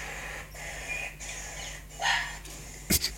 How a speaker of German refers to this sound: Wie macht der Fuchs? Bellender Fuchs. So nämlich.